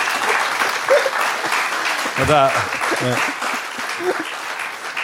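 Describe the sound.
Steady, dense applause from an audience for a performer after her first performance fills the scene throughout, with a few short voices speaking and calling out over the clapping.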